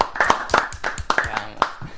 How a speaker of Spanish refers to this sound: Señoras y señores. Un aplauso. Un aplauso.